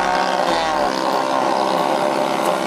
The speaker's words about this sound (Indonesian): iklan knalpot di sini mah.